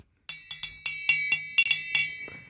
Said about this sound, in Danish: Det var så en kaffekande, ikke?